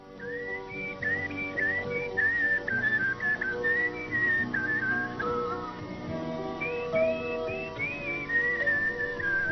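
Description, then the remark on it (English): A person whistles a wavering, sliding melody in a series of short phrases, imitating the whistling of Bonnie, an orangutan. The whistling is steady, with a soft broad background underneath and no talking. “They were walking around in the, in the enclosure, and, and heard whistles and they were like, wow, hmm, that's strange.”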